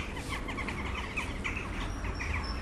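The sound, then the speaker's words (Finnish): A dense flock of jackdaws calling near their roost, many overlapping short chattering calls in a continuous busy chorus over a low rumble of background noise. “Naakkojen yöpymispaikan läheisyydessä”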